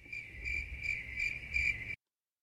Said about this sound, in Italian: Non importa, erano i grilli.